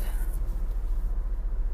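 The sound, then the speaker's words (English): A black car with a black interior pulling out of a driveway a little after 4 p.m. to head to the gym, heard from inside as a steady low engine rumble that holds evenly throughout, moderately loud, with no one talking. “Pulling out of the drive.”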